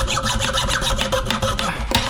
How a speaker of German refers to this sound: So, jetzt kommen meine handwerklichen Fertigkeiten zur Geltung, denn ich säge jetzt den Bambus auf meinem Holztisch. Ich hoffe, ich schneide nicht da rein. Und ja, ab geht's.